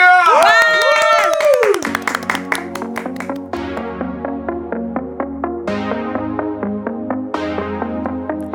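Steady, rhythmic hand claps keep time with the instrumental intro of an upbeat alternative-genre song performed live, crisp regular beats over sustained bass and melodic synth tones.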